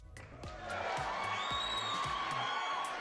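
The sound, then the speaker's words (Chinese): A crowd cheers and whoops loudly and continuously, with sharp claps cutting through and a few high whistles rising above the steady roar of voices, applauding the fifteenth anniversary of Travis Vintage on June 3. “十五周年， 周年，拍手！”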